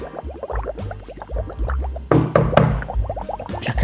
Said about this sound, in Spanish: El agua está fantástica. Las burbujas me vuelven loco.